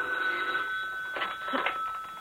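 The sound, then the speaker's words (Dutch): A telephone rings with a steady, high electronic tone, moderately loud, broken by a couple of brief brighter bursts. No one speaks. “Telefoon voor je is er.”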